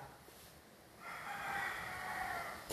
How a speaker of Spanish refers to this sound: Oiga el gallo cantar conmigo.